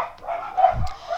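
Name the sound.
dogs barking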